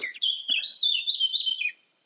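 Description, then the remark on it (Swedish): A bird sings a continuous, high warbling phrase lasting under two seconds, clear, with quick trills and slides before a brief pause and a tiny final chirp. “Så nu sitter jag här och lyssnar på fågelsången och ehm, filosoferar lite.”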